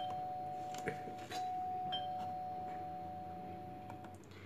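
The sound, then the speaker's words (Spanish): The doorbell of a house rings with a sustained electronic tone that holds steady for several seconds, over a low background hum with a few faint clicks. “Piensa mientras toca el timbre de la casa de Carolina.”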